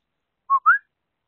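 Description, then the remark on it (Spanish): A short two-note whistle to call a female dog, the first note steady and the second sliding upward, clear, with silence before and after. “también además me van a oír llamar a mi perra, porque lleva unos días queriendo pasar por un campo minado, alias una parte del barrio, donde eh, de vez en cuando algún de suelta comida envenenada.”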